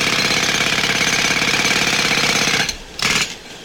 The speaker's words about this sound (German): der Vorschlaghammer ist gerade in Gebrauch, aber wenn schon Wochenende, warum nicht direkt der Presslufthammer?